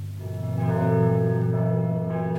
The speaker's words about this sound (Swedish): I maj 1945 kommer till sist freden. Vi hör kyrkklockorna i Stockholm hälsa freden.